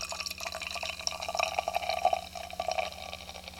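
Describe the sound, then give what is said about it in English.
Beer pouring steadily into a glass, with a bubbly, splashing gurgle and faint fizzing over a few seconds; nobody speaks. “Going for, it, going for the pour.”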